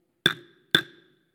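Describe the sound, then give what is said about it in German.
Two sharp wooden knocks of a judge's gavel, evenly spaced about half a second apart, each a crisp strike with a short ringing tail, no talking over them. “Damit kann man äh, sehr schön hämmern.”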